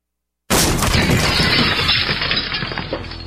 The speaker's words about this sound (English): That's what it sounds like when a burglar kicks in the door of a dark house that looks like no one is home.